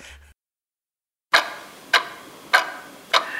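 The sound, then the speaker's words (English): A clock ticks loudly and steadily, four sharp, ringing ticks spaced evenly about half a second apart after a brief moment of silence, with no voices present. “The deadline day clock is still ticking.”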